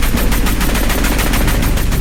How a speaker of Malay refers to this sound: Tentera Malaysia melepaskan tembakan meriam 20mm selama beberapa minit bagi memastikan senjata anti pesawat musuh dimusnahkan sepenuhnya ketika konvoi APC-41 mula mendekati kawasan di mana helikopter Black Hawk milik Amerika Syarikat terhempas.